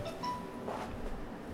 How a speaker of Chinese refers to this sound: 哦，好，刚刚有人电话响。